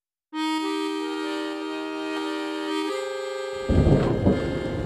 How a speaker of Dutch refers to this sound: De regen tikte tegen de ruit en de storm liet het kasteel fluiten.